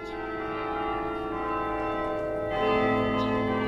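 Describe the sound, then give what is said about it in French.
Carillon bells ring in a rich, sustained wash of overlapping tones, with the chord shifting about two-thirds of the way through and growing slightly louder. There is no talking. “Voici un autre euh, carillon, un carillon de Richard Strauss.”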